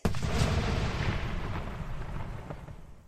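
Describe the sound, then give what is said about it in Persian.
A magic wand held together with Spellowtape, Ron's wand raised by Lockhart as he shouts "Obliviate", explodes with the force of a small bomb: a sudden sharp blast followed by a long, loud, rumbling roar that slowly fades over a few seconds. No one speaks. “چوب دستی با شدت بمب کوچکی منفجر شد.”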